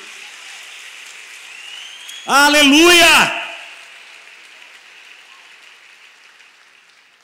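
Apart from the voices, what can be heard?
audience applause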